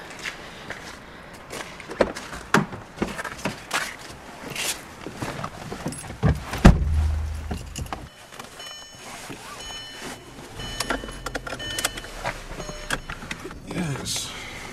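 Clicks and rustling as someone gets into a car, then a solid car door thump, followed by a steady electronic chime and a low engine-like rumble; keys and handling noises rattle throughout.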